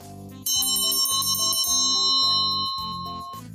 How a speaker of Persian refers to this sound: شکمش رو مالش میداد که یهو زنگ در خونه به صدا در اومد